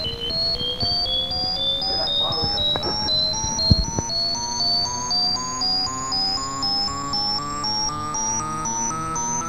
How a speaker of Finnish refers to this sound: Hei! Mikä tuo on? Se kuulostaa ihan älytykseltä.